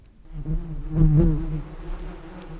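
Bees buzz steadily, a continuous droning hum that swells and wavers slightly in pitch, with no voices present.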